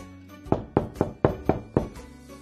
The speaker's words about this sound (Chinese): 小趣和甜甜想和小乌龟们一起玩。他们来到乌龟家门口，小趣开始敲门。